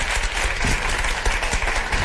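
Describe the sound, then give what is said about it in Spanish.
A crowd applauds steadily to welcome a guest film critic, a dense wash of many hands clapping at once, fairly loud and sustained throughout with no voices standing out. “Un aplauso para”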